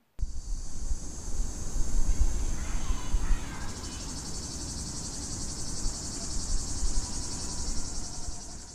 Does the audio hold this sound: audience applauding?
no